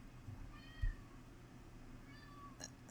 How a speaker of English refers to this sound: There's no cat in your car. Just a big fat male cat here.